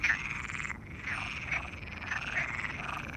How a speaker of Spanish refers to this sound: Según su hipótesis, el hecho de que algunos corros de ranas disminuyan estimula que otras especies de ranas aumenten su canto y por lo tanto tengan una mayor probabilidad de reproducción y de supervivencia.